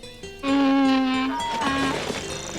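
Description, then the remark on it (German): A donkey brays loudly at dawn, a strained, harmonic call that shifts pitch a couple of times as it drags on for about two seconds, with no voices. “Dann aber hörte er das Schreien des Esels.”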